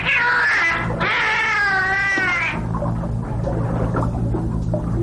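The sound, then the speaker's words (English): Dolphin vocalizations from an album recording: two long, wavering, squealing cries close together, loud, then a low murky rumble with faint clicks and chatter for the rest. “The dolphin doesn't want to say hello.”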